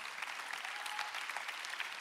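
Steady applause from an audience in a hall after a message and prayer, a dense patter of many hands clapping at once, sustained and even throughout with no voices standing out.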